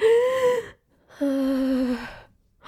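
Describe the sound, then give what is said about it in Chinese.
A voice imitates the frightened gasping of passengers on a large bus as two buses pass each other on the narrow Amalfi Coast road: two sharp, tense intakes of breath, each held for a moment with a strained, pitched tone, separated by a brief pause, then a third begins at the end. “是，你会一直听到这种声音，还会这样，这样子，就是一直抽，一直抽，一直抽，一直抽。”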